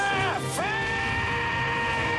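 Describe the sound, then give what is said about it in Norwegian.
A loud, sustained scream from the film Das Boot, with a rich, harmonic tone. Its pitch dips and swoops twice early on, then holds a steady high wail to the end, with no talking. “I hvilken film hører man det her skriket?”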